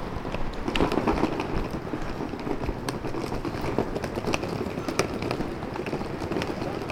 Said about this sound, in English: That is the sound of a rolling suitcase uh, being dragged over cobblestones.